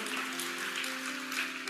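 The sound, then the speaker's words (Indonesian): A crowd claps steadily for a couple of seconds in applause for Jesus Christ, a dense, even patter of many hands, with a faint sustained musical tone humming underneath. “Tepuk tangan yuk buat Tuhan Yesus Kristus.”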